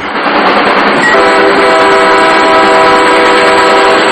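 A train rolls along the tracks with a loud, steady rushing rumble close by, and a sustained horn-like tone joins in after about a second and holds to the end.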